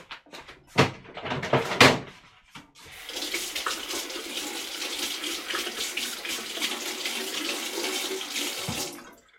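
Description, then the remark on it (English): A few sharp clinks and knocks, then a steady roar of bubbling, boiling water that continues for several seconds as an egg taken from the fridge is lowered in and held there. “Now I'm trying to get an egg from the fridge and I am putting the egg into the boiled water.”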